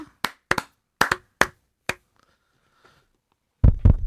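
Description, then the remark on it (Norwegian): A handful of sharp, sparse hand claps in an uneven rhythm following a short spoken presentation, then a short quiet pause before a louder, thumpier cluster of claps or knocks at the end. No one speaks. “Hvorfor klapper du ikke, mamma?”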